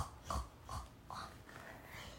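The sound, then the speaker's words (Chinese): A voice imitates a sniffling nose: four short, breathy snuffles in quick succession, noisy and airy, with no words spoken. “他吸吸鼻子，”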